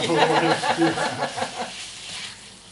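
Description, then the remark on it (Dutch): Food sizzles in a hot pan with a steady crackling hiss. Voices murmur over it at first, then the sizzle carries on alone and slowly fades. “Je hoort wel sissen, hè?”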